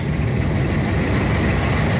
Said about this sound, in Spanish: Ahí se ven los camiones. Vamos a escuchar. Es como están los camiones sacando materia de río.